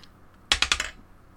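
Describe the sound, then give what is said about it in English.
A short burst of dice being rolled, four quick sharp clacks in rapid succession as they tumble and settle on a hard surface, fairly loud against a quiet background. “Hold on, let me find these dice.”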